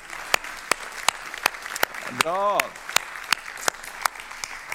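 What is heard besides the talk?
audience applause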